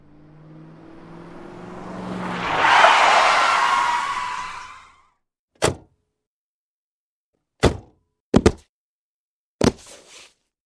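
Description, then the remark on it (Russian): A taxi roars in at a pier with a rising, harsh screech of brakes on the starboard side that swells and cuts off after about five seconds, followed by four sharp thuds like car doors slamming. “Визг тормозов по правому борту разрезает словно скальпель.”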